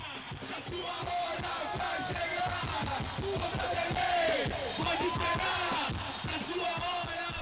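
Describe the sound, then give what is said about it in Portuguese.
A group of men, Santos football players, chant loudly together in a rhythmic, rowdy taunt aimed at coach Luxemburgo, their voices overlapping with shouts and yells throughout. The steady beat suggests clapping or stomping underneath. “Então vamos escutar o áudio de como os jogadores do Santos provocaram o Luxemburgo e a polêmica que tudo isso deu.”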